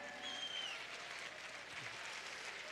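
An audience applauds steadily, a dense wash of clapping hands that stays even and sustained for the whole moment, with a faint whistle-like tone briefly rising above it.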